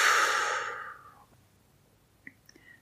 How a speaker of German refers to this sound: Und wenn du das gemacht hast, dann schließ mal kurz die Augen Atmen mal tief ein und wieder aus.